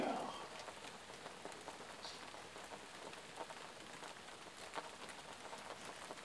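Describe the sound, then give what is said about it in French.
Steady rain patters on a hard surface, a dense, continuous hiss of drops with occasional louder splashes, even in volume throughout, with no voices. “Et c'est toujours cette pluie, la douce fraîcheur qui l'accompagne, qui vous berce dans cette expérience d'hypnose et dans ce sommeil profond et récupérateur qui s'installe.”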